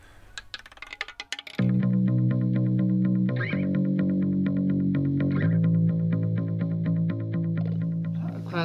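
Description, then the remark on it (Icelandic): A roulette wheel sound effect signalling that it is time for the next audio clip: a quick run of rattling clicks and ticks, then a loud, sustained electronic chord jingle with processed, shifting tones that holds until the end. No one speaks. “En þá heyru við ágæta rúletu hljóðið sem þýðir að það er komið tími fyrir næsta hljóðbrótum.”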